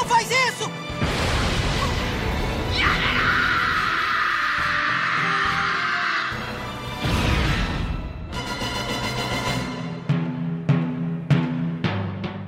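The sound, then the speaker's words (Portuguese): Chaotic war sound effects: loud crashes and booming blasts, a sustained roaring rumble in the middle, then a rapid series of sharp explosive impacts toward the end, intense. “Esse é o som da guerra”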